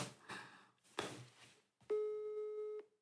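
A single steady electronic telephone ringing tone of an incoming call sounds clearly for about a second, preceded by a few short bursts of muffled handling noise. No one speaks.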